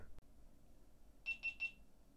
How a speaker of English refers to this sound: Uh oh. Oh no. I'm hearing beeps. That's not good. Beeps aren't good. Beeps are never good. Unless it means like your microwave popcorn's done.